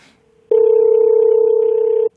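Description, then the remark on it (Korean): A single steady electronic ringback tone from an outgoing phone call placed by a radio show host to a listener hums loudly and clearly for about a second and a half, then cuts off, with no one speaking. “아니, 지금, 지금, 지금 전화 한번 걸어보도록 하겠습니다.”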